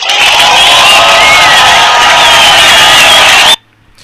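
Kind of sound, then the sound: crowd, audience applause and cheering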